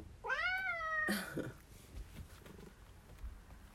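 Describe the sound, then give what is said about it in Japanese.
A cat named Mafu gives a loud, drawn-out meow with a rising then falling pitch, followed by a shorter, rougher second call, then quiet rustling background. “マフが泣いてます”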